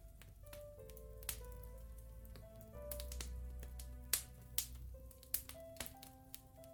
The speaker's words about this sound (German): Sein prasselnder Kamin. Und ich dachte mir so im Hintergrund ein prasselnder Kamin mit dem kleinen bisschen